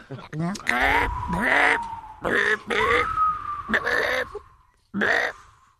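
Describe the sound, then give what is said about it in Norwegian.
A voice imitates seagull cries on Radio Rock: a run of about six or seven loud, shrill, wavering squawks, alone, each rising and falling in pitch with short pauses between. “kan du lage, må kan du lage må måke- og sjølyd?”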